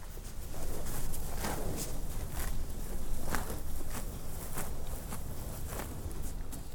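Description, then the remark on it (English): Healthy cows in a new pasture chomping on lush, thick grass: a steady series of crisp tearing, crunching bites in an uneven rhythm, over a low rumble of wind or outdoor background. “In a way, it's the sound of success healthy cows chomping away at lush, thick, healthy grass.”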